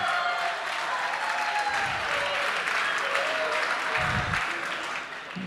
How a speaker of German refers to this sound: Wo sind Posaunisten? Aufstehen! Posaunisten aufstehen! Stehen mal auf! Ja, Applaus für Posaunisten! Yeah!